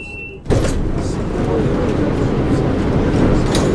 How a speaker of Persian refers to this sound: صدای قطار از چپ به گوش می رسد. درها باز می شوند.